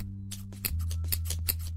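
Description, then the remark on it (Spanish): A quick run of crisp scissor snips, about eight or nine in fast succession like a drumroll, fairly loud over a steady low hum, played as a drumroll of scissor snips to welcome a guest. “Amigas de Corriendo con Tijeras, hoy tenemos una invitada muy especial para la cual vamos a pedir un redoble de tijeretazos, claro que sí.”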